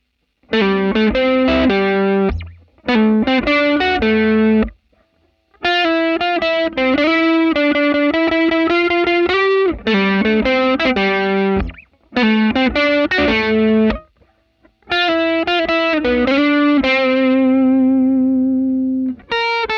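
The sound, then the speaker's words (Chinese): An overdriven Silvertone 1484 guitar amp, a very cheap model, plays loud, gritty riffs in several bursts separated by short pauses, ending on a long sustained, buzzing note. No one speaks. “好了，那最后呢，老样子，我们把四台音箱串在一起，听听看你最喜欢哪一台音箱的过载声音吧。”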